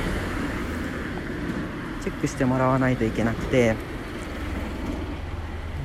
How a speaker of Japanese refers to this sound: ごめんね車が多すぎて